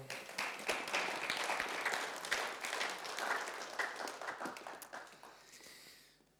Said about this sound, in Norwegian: Takk, lovsangere. Det er lov til å klappe.